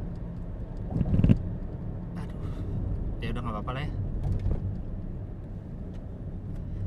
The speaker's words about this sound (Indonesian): Ada suara getar-getar mobil gak sih?